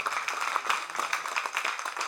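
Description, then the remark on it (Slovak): A church audience applauds the Lord after a prayer, many hands clapping in a dense, steady patter that holds an even loudness for about two seconds, with no voices standing out. “Dajme potlesk pánovi.”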